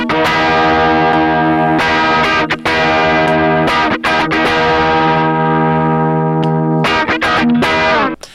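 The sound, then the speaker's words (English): Loud, distorted electric guitar in position one through raw output plays sustained ringing chords with sharp strums between them; the push-pull control is pushed in, then pulled out halfway through, and the tone turns slightly brighter and more open near the end. No talking. “So this is with it pushed back in. And halfway through, I'm going to pull it out so you can hear the difference.”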